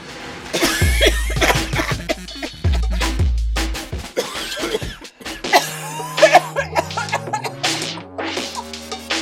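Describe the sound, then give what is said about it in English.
Repeated bursts of coughing from a voice, loud and irregular, mixed with sharp percussive thumps and bits of laughter-like sounds across the whole stretch, with low droning tones partway through. “I'm just going to cough a, a lot.”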